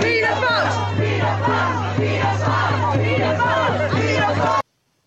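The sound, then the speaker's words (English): A large crowd at a protest chants "paedophiles" in unison, voices rising and falling in a steady repeated rhythm over a low droning hum, loud and continuous before cutting off abruptly. “Can you hear what they're chanting?”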